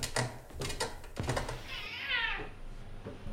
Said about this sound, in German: Von drinnen krächzt und maunzt es. Ein grauer Kater hält vorsichtig etwas Abstand.